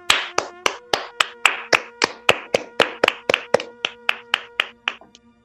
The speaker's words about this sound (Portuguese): É, uma salva de palmas aí para essa galera aí.